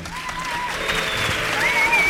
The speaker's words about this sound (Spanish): Gracias por los aplausos. Gracias. Pero estáis haciendo mal según los grandes palmeros, se debe de ahuecar un poco más las manos para que suene mejor.